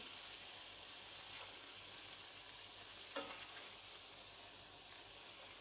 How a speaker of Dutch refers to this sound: Nou, de kip is nu lekker aangebraden. Ik maak hem weer even los met de spatel, want begint her en daar alweer een klein beetje aan te bakken.